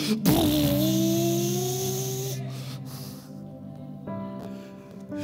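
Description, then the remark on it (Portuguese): A voice imitates the engine of a paper airplane with a buzzy, sustained droning hum that rises in pitch at the start, then holds steady for about five seconds, fairly loud. “Menino faz um avião de papel e ele acredita que aquele avião é de verdade e sai, ele faz até o barulho.”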